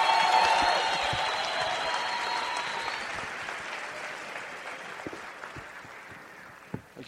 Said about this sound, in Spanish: Si van a aplaudir, aplaudan. Si van a aplaudir, aplaudan.